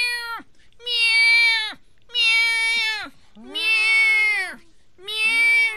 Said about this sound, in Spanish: Así el el niño para abajo y lo van soltando poco a poquito para que rescatara a un gato. Ah. ¡Miau! ¡Miau!